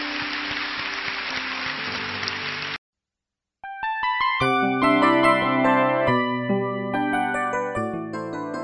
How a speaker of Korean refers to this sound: 우리 승리하신 주님께 영광의 박수 올려드리겠습니다. 할렐루야.